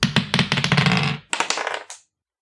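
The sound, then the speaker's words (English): Dice rattle and clatter in a quick, loud burst of hard clicks for about a second, then a brief second tumble of a few sharp clacks before silence. “Let me roll these dice.”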